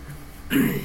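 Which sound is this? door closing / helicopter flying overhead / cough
cough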